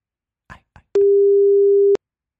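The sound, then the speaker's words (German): A phone line's busy tone sounds as one steady, fairly loud beep lasting about a second, preceded by a couple of soft clicks, with no one talking. “Ist bestimmt, weil es unterdrückt ist.”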